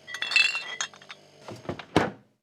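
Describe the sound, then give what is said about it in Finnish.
Glass bottles clink and knock together in a quick irregular cluster of bright, ringing taps, followed by a few duller thuds and one louder clunk near the end, as two bottles decorated with Santa Claus faces are taken from a fridge. “mutta meni oikopäitä jääkaapille ja otti sieltä kaksi joulupukin kasvoilla koristettua pulloa.”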